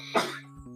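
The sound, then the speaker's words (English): A single short sneeze: one sharp, breathy burst that fades within a fraction of a second, leaving a low, steady hum underneath and no talking. “Bless you.”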